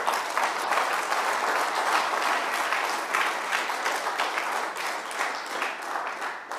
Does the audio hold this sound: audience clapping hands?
yes